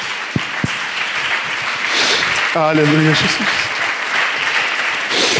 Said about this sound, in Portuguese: Aleluia, nós aplaudimos o teu nome, Jesus.